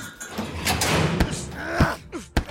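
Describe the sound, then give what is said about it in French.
A prison guard takes out his keys, unlocks a door and pushes it open, with metallic clicks, a dragging creak and a sharp knock near the end, fairly loud, with no voices. “Le gardien sort ses clés et leur ouvre la porte.”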